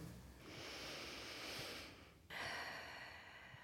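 A long, slow, deep belly breath drawn in, then a deep, airy breath let out, quiet, with no talking, by a person lying on a mat during a grounding exercise.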